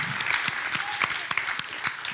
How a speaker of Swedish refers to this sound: Jesus Kristus som har uppväxt från de döda är levande. Så vi ger honom ännu mer applåder.